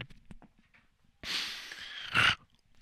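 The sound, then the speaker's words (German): A long, hissing snort blasted into a microphone, ending in a louder, harsher nasal burst, after a few soft, low thumping mouth sounds like quiet beatboxing. No one speaks. “Ja, erstmal rein Beatboxen und ins Mikrofon schnaufen.”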